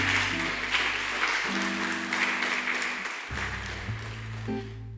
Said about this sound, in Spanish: Denle un aplauso al Señor por esto, mi hermano.